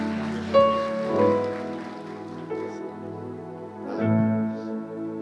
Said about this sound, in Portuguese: Você pode aplaudir o Senhor pela vida desse homem de Deus.